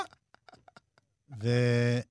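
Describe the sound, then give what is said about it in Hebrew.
A few short, soft vocal clicks and murmurs lead into one loud, sustained, drawn-out moo that lasts about a second, close to the microphone and apparently voiced by a person imitating a cow. “זה פרה שמדברת עם חירש. מו? מה?”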